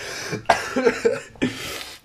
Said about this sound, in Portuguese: Ai, ai caralho. Engasguei-me com água, pá.